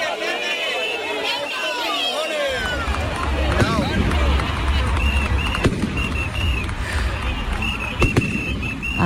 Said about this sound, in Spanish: ahí están los cohetes uno, al paso de Baltasar. Uno no sabía si pasaba por la Macarena, si salía la carreta para el rocío. O sea, los fuegos artificiales de la feria.